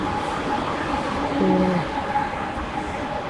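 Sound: passing train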